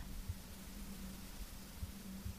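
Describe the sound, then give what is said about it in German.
Soft, steady rustling of a corn field outdoors, a faint continuous hiss like wind through leaves, with a few low muffled bumps and no voices. “Und wenn ihr so Rauschen im Hintergrund hört, ich weiß nicht, könnt ihr das hören?”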